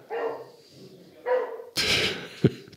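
dog barking

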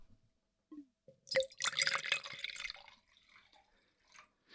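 wine poured

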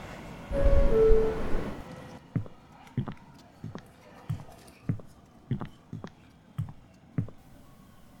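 train arriving

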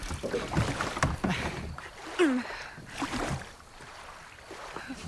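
rowboat moving through water

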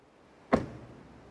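car door being closed

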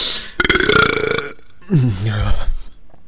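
burping

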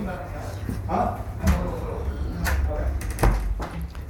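door being locked

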